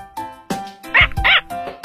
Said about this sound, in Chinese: 然后，汪汪的叫起来